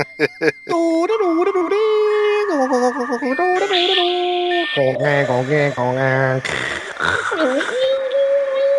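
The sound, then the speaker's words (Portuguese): A voice imitates a 56K dial-up modem connecting: a few quick clicks, then warbling beeps, rising and falling squeals and a harsh buzzy screech, loud for several seconds. “Me deu saudade do modem 56K.”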